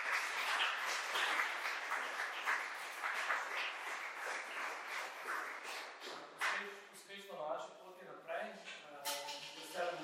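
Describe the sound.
A dense burst of applause from a small audience for three guests fills the first several seconds, then fades as people begin talking and laughing over the last few clapping hands.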